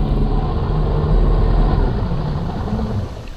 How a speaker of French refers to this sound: Un moteur. Il bondit sur ses jambes. Un bateau approche de son île et au loin, on voit un cargo.